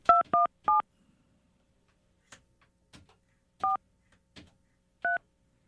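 Touch-tone telephone keypad dialing of a phone number, redialed without a leading one: three quick beeps in a row, a pause with faint button clicks, then two more separate beeps. The tones are clear, with no talking.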